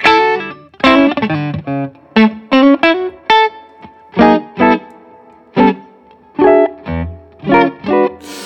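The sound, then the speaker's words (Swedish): Electric guitar chords strummed in short, separated bursts with a light reverb tail ringing after each one, played clearly with no talking. “det här är bara stärk. Ja. Med lite reverb.”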